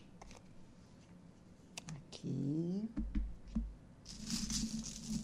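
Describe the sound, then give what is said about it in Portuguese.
Tarot and Cigano (Gypsy) deck cards being shuffled and mixed, with scattered clicking taps and a denser riffling rush near the end. A brief meow-like cry sounds midway, and a single word is spoken. “Vou embaralhar aqui, misturar umas cartas aqui.”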